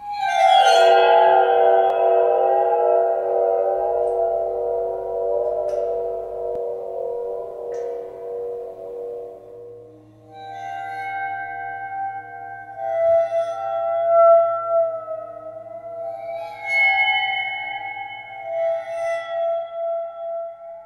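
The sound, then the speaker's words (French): A waterphone, a friction instrument, rings out with eerie, glassy metallic tones: a loud shimmering swell slowly fades, then new wavering bowed notes rise with bright high overtones, sustained and unaccompanied by speech. “Et il y a un autre instrument dont j'aimerais parler également, c'est le waterphone, qu'on peut entendre d'ailleurs dès 1979 dans la bande-son d'Amityville, la maison du diable.”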